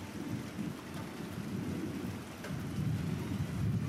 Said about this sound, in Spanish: Diez horas lloviendo.